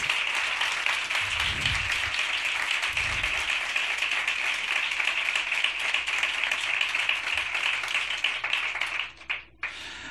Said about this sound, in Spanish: recibimos con este mejor de los aplausos, el primer aplauso lunero del año, al gran Andy Chango.